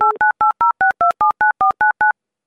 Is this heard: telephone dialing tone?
yes